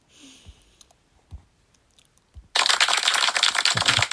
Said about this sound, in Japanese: まあまあまばらな拍手ありがとうございますああそれぐらいじゃないとねやっぱりそうそうじゃないとね